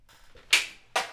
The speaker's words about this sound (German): Ich werde mal die Münze werfen.